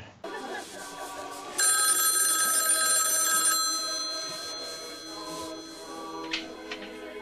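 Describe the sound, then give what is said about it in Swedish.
A telephone rings in a single loud, bright burst lasting about two seconds, then trails off over a low, steady tonal background with faint sounds. “Ja, när vi får höra när, första gången Bill ringer.”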